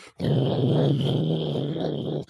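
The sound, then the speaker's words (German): A voice imitates the rustle of an arm pushed fully into a popcorn bucket and turned in circles: one steady, raspy, growl-like churning noise held for about two seconds, fairly loud. “Er hat von Anfang an, es gab keine Notwendigkeit dafür, seinen Arm komplett in den Eimer reingefahren und dann den Arm im Kreis gedreht und damit so ein Geräusch gemacht”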